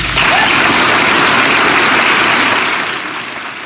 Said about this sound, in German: Ich würde sagen, für Ihre inspirierende Arbeit haben die fünf einen ersten Applaus verdient.